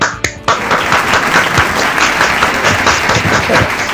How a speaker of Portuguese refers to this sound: Podemos aplaudir, né?